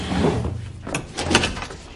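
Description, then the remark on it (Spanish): A heavy piece of furniture that was blocking a door scrapes and drags, followed by the clunk and creak of the door being pulled open, with a low rumbling undertone throughout. “Quita un mueble que atranca la puerta y sale.”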